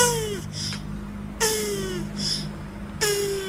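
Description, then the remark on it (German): A tortoise moaning during mating: three drawn-out, strained groaning calls spaced about a second and a half apart, each sliding downward in pitch, over a steady low background hum. “Schildkröten. Also die haben auch wirklich Geräusche drauf beim Sex.”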